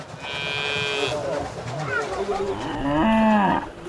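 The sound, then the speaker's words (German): Cows moo loudly at their shelter in a rural suburb of Nairobi, Kenya: two long, drawn-out calls with a shorter, rising moo in between, no talking heard. “Doch jetzt laufen seit Tagen vor dem Unterstand der Kühe die Baumaschinen.”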